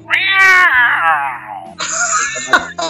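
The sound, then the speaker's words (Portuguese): Someone imitates a jaguar with a loud, drawn-out cat-like yowl, then breaks into a rougher, shorter growling burst after a brief pause. “Todo mundo tem que fazer o, o, a onça. Como é que é a sua onça aí,”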